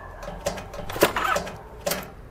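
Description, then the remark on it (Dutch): An old-fashioned motorcycle kickstarter is stomped several times with full body weight, each kick a sharp metallic clunk and brief mechanical churn, but the engine never catches or settles into a running idle. “is een ouderwetse kickstarter waar je met zijn volle gewicht op moet staan.”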